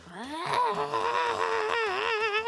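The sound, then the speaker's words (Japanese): A voice imitates a loud, droning, very cheap vacuum cleaner: a nasal whine rises in pitch, then holds steady for a couple of seconds, wobbling slightly toward the end. “2000円ぐらいの鬼安激安掃除機を使ってたんですけどすごい音がうるさくて”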